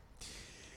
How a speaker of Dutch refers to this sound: Even een slokje water, want het is hartstikke warm.